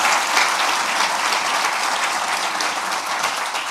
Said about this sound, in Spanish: Un nuevo aplauso para ellos, grande.